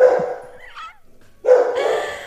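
A dog barks twice, loud, with a short high whine between the two harsh, drawn-out barks. There's no talking.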